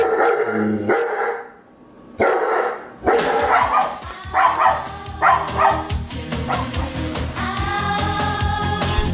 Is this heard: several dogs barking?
yes